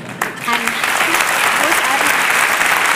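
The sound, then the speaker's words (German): Steady, dense audience applause for a stand-up comedian fills the whole stretch, a loud continuous wash of many hands clapping with a few faint voices and cheers poking through. “Applaus für meine Kollegin”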